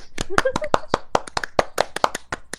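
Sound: hand clapping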